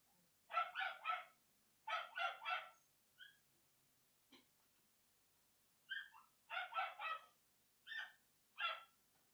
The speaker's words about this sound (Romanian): Și mai înainte, tocmai l-ai ascultat pe câinele landlordului în concert extraordinar, chiar uh, aproape live, ca să zic așa.